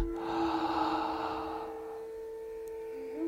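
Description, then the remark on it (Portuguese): A long, deep breath drawn in through the mouth during a guided breathing exercise, airy, lasting nearly two seconds over a soft steady background hum before fading to quiet. “E agora, a hora peça, começa a inspirar pela boca.”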